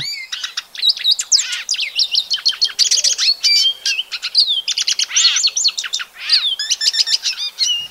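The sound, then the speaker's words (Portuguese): A small songbird, one of Brazil's popular songbirds, sings a fast, continuous song of bright chirps, trills and whistled notes, clear, with no other sounds or voices around it. “E a gente segue naquela série sobre os passarinhos mais populares do Brasil.”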